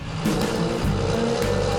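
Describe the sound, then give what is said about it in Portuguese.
A latest-generation tractor engine runs steadily as a 21-year-old drives it from the cab in Rio Grande do Sul, Brazil. It makes a loud continuous rumble with a deep droning hum and broad mechanical noise, holding an even level throughout. “comanda o trator de última geração.”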